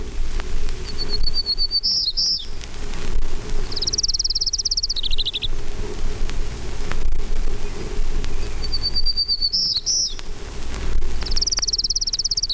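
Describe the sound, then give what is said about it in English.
Townsend's warbler song rings out twice, each a high, buzzy phrase of wheezy notes followed by a drawn-out buzzy trill, over a steady hiss of outdoor background noise. “Townsend's Warbler.”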